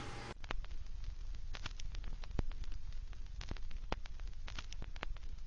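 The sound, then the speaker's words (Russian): Steady crackling static at the start of a song fills the whole stretch, a dense hiss peppered with sharp pops and clicks at irregular intervals, like an old record's surface noise, with no voices. “Неужели это 50 секунд просто треска?”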